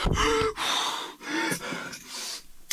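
Audible deep breathing, taken to decompress: slow airy inhales and exhales alternate over a few seconds, fairly loud and breathy, ending with a couple of short, fainter puffs of air.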